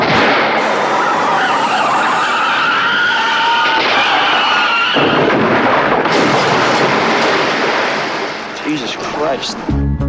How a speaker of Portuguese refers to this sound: parece um mero acidente de carro acaba por se revelar algo completamente diferente.